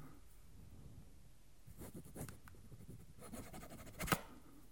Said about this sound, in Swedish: Ska byta hitta en gammalt kvitto som du har ritat på. Mitt lilla sushi-kvitto. Vad ska du rita? ska jag bara öva en gång så min autograf låter fint.